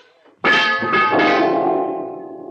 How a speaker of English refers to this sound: I sprawled tight against the woodpile at one side, and my head ached just to hear that wrench clang against the floor.